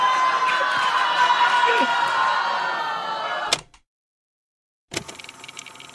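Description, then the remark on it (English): A live audience in Detroit boos a man out of the room, loudly and steadily for about three and a half seconds, then it cuts off abruptly into silence before the crowd noise returns briefly at the end. “I'm going to go ahead and pause and say thank you, Detroit, booing that guy out of the room because he uh, said I shouldn't be there.”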